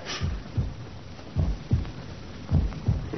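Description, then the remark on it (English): A heartbeat as heard through a stethoscope: three muffled, deep lub-dub pairs of thumps at a steady pace, dull, with a faint hiss underneath and no voices. “It's your heartbeats are vibrating against the casing.”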